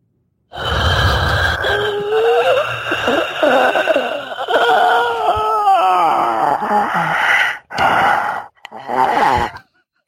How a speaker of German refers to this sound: Ich atme jetzt noch mal ein bisschen